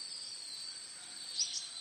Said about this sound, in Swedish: Men det gjorde inget eftersom syrsorna spelade sin fantastiska sång.